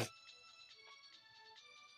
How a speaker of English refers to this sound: Oh, oh no, I got a text message. Never mind. Hang on.